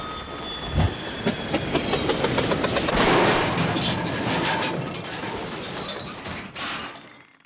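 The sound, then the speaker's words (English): A loud crash landing sends bicycles toppling, with a thud followed by several seconds of rattling metallic clatter and rapid clanks over a harsh, noisy rumble. No one speaks. “I'm just gonna pick up all these bicycles I knocked over real quick”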